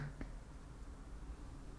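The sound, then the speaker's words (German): A single sharp finger snap near the start, made as a TikTok-style move, a quick bright click, followed by quiet background hiss and low rumble with no talking. “Ich wünsche mir jetzt so einen, so einen TikTok-Move, wo ich schnippe”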